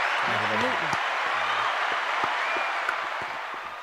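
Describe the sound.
An audience claps in a steady, dense wash of applause that holds for several seconds and eases slightly toward the end, with a man's voice briefly audible underneath.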